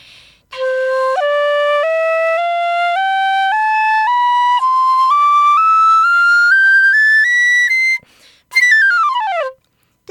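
A shinobue bamboo transverse flute, held sideways, with seven finger holes and marked number 8 for its key, plays a steady ascending scale of clear, breathy notes climbing high, then after a short pause sweeps rapidly back down in a quick descending run. No voices.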